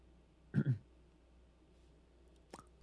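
A short, muffled two-part sneeze bursts out against a quiet background, followed a couple of seconds later by a faint click.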